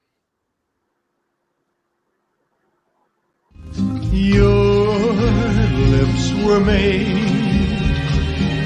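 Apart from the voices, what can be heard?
pop ballad song playing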